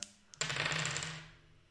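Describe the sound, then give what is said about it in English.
A couple of quick clicks, then dice clatter and rattle across a hard tabletop in a rapid burst of tapping that gradually settles and fades, fairly loud, with no voices. “These dice have a tendency to roll very high.”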